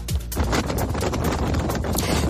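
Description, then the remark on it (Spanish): A storm in Spain with strong wind gusts of over 100 kilometres per hour, a loud steady rush of noise broken by sharp buffeting bursts and clattering knocks, with no voices. “Y la borrasca Carlota suena así.”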